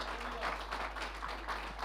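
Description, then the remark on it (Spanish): An audience applauding in praise of God: dense, overlapping clapping from many hands forms a steady, crackling wash that holds at an even, moderate level throughout the short clip. “De un aplauso de alabanza a nuestro Dios.”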